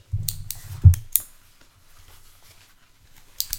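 A pen scratches across paper in a few quick strokes, with soft taps and a brief thump, then quiet before a final short scribble, as someone tries writing with the pen.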